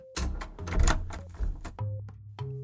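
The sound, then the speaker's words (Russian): An apartment door slams shut with a heavy, booming thud, followed by a few rattling knocks and clunks as it settles, over a low sustained hum. No voices. “И Владимир решительно захлопнул дверь перед носом стремящегося зайти в его квартиру, шута в фуражке.”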